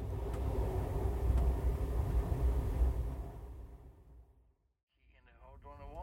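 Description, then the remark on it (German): Steady low rumble inside a moving overnight train in Norway bound for Bergen, fairly loud for about three seconds before fading to near silence; a voice then starts speaking. “Zum sanften Wanken vom Zug sind wir dann eingeschlafen und am nächsten Morgen sind wir an einem ganz anderen Ende von Norwegen wieder aufgewacht.”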